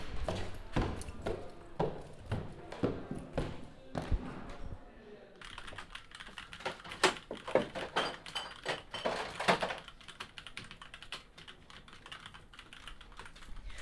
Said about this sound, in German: Ja, hier höre ich dir einen kleinen Ausschnitt aus dem Publikum im Hackspace, beziehungsweise den Leuten, die hier wild vor sich hin arbeiten. Das sieht sehr eindrucksvoll aus.